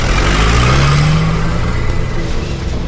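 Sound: car engine revving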